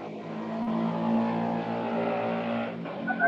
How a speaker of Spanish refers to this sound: Saludos a la moto. Saludos al de la moto.